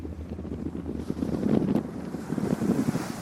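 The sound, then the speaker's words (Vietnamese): Strong wind roars and buffets steadily while waves slap and wash against the hull of a ship sailing far from the mainland toward Vietnam's outlying islands in rough year-end seas, a continuous low, rumbling maritime din with no voices. “Càng đi xa đất liền, tiếng sóng vỗ mạnh hơn, tiếng nói cười ít dần.”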